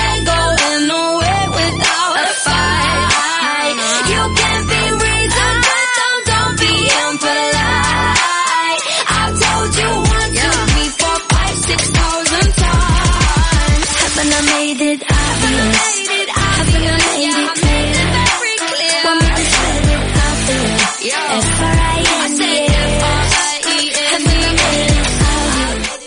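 An electronic pop song plays loud on CLM Activa Radio in Castilla-La Mancha, with a steady thumping beat, bright synth layers and a sung melody, the bass briefly dropping out in short rhythmic gaps.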